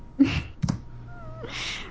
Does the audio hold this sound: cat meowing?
yes